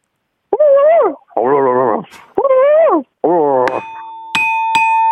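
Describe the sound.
A phone-in caller's voice imitates a dog, giving four whiny, yelping bursts in quick succession. Bright bell-like dings ring out over the last two.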